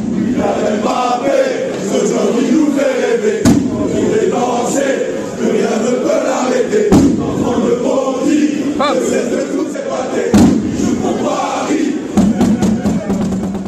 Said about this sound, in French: Les ultras du PSG ont une surprise pour Bappé qui va bientôt devenir le meilleur buteur de l'histoire du club. Il s'approche du record de Cavani, 200 buts. Les ultras entonnent pour la première fois un chant à son honneur.